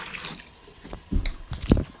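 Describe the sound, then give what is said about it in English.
A sink faucet runs with a steady wash of water, broken by louder splashing bursts in the second half as the stream hits the basin. No voices. “We're gonna listen to the sink.”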